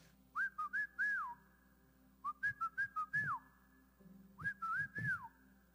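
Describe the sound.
Someone whistles a short calling tune, repeating the same quick phrase of rising and sliding notes three times, clear over a faint low hum.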